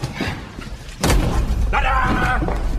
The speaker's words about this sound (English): put a pencil on a desk and put the basically fell fella's head right through the pencil, through his eyeballs